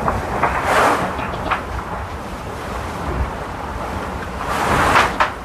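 Waves wash and surge around a sailboat on the open Pacific Ocean at latitude 51°6′ S, approaching Point Nemo, far from any land, while wind roars steadily across the microphone, with two louder swells breaking near the start and end.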